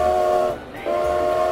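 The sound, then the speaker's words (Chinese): A loud train whistle sounds twice as a train departs, a steady, bright, reedy tone in two long blasts split by a brief pause, over a low rumbling train underneath. No one speaks. “毛毛虫列车就要开动喽，请大家赶快上车。”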